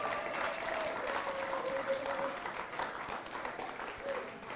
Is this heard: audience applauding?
yes